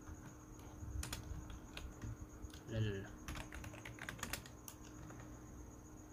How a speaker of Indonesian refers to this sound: hmm, dimana ada suara ketik-ketikan ada suara CPU fan-nya muter ada suara kipas